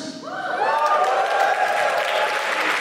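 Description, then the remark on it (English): A crowd bursts into cheering and applause when asked to cheer if they are now or have ever been immigrants, with rising whoops and shouts over steady clapping that stays loud and dense for about three seconds. “Uh, hello, just give us a cheer if you are now or have ever been an immigrant.”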